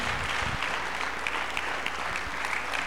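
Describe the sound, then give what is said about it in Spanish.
An audience applauds the Lord loudly, a dense, continuous wash of many hands clapping at an even loudness for the whole stretch, with no voices standing out. “Aplaude fuerte al Señor.”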